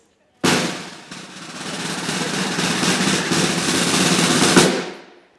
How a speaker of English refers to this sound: So as we look at verse one, could we have a drum roll, please?